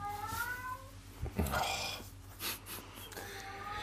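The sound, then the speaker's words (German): Cats meow and squabble, a few drawn-out yowls followed by a sharp hissing flare-up and scuffling noise, with low background hum throughout. “Was ist mit der Katze los? habt ihr denn für einen Stress hier? Hört mal auf.”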